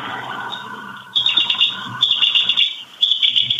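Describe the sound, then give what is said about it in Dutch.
A Cetti's warbler's loud, explosive song in abrupt bursts, rapid metallic notes tumbling out in short phrases separated by brief pauses, played back clearly from a recording with no one talking over it. “De Setti-zanger. Ja, die is wel mooi.”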